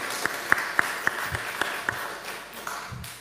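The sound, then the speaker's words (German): A smattering of applause from an audience for the band's musicians and singer. Several sharp, evenly spaced claps stand out over a softer wash of clapping that gradually thins out. “Ich glaube, das ist einen Applaus wert.”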